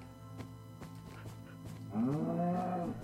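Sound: cow mooing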